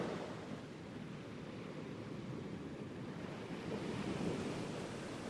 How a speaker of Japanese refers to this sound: 風が木々や波を揺らします